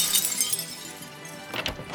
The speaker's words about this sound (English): Somebody was toying with the lock. Anyway, he must have gotten bored of that because the next thing we heard was the glass in the front door smashing.